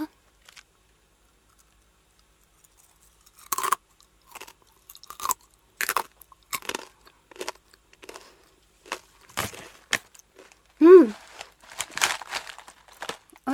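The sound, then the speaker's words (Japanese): Crisp, crunchy chewing of a spicy snack after a few quiet seconds, with sharp irregular bites and crackles in quick bursts, plus a short voiced hum partway through the munching. “じゃあ、今から食べちゃうよ。”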